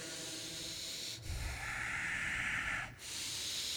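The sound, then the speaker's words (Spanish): A deep, slow breath drawn in through the nose, inflating the belly, and then let out through the nose while contracting the belly, an airy hissing rush that fills the moment with no talking. “hacer una inhalación profunda por la nariz, y exhalar por la nariz.”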